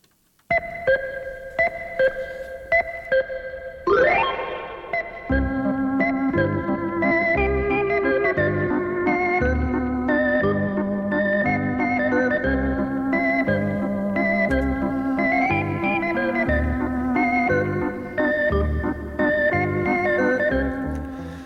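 A bright, sustained electric organ plays a bouncy waltz melody over steady oom-pah-pah accompaniment, opening with a few detached chords and a rising swoop before settling into a lively, full tune.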